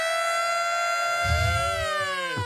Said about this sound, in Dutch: Dat andere, weet je wel, dat alarm. 532-alarm.